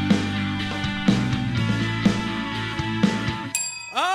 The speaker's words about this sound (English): oh, turkey's ready. what? I know. Do you just have a bell near you? Yes.